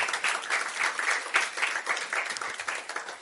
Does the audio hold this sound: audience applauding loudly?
yes